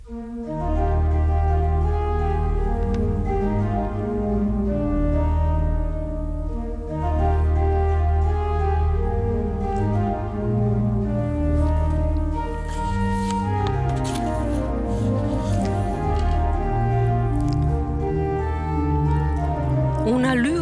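Pipe organ music with sustained, richly layered tones, a chorale melody entering phrase by phrase among several interweaving contrapuntal lines, played steadily and fairly loud with no voices.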